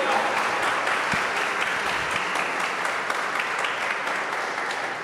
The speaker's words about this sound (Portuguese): Pode aplaudir o Senhor.